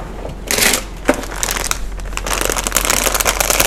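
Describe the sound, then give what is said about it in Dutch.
Crinkling of a foil wrapper around filled milk, dark and white chocolate praline eggs from Jumbo, soft inside, a busy stream of bright crackles and rustles with a louder burst near the start, continuing steadily with no voices. “als je dit hoort, dan kijkt iedereen op en van oeh, er is wat lekkers.”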